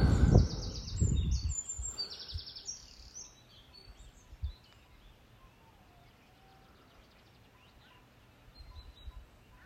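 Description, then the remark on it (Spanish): Outdoors, birds chirp in quick bright bursts at first, with some low rumbling underneath, then the scene quiets to faint, scattered calls. No one speaks. “Los pájaros aquí están tranquilos y se les oye muy muy bien.”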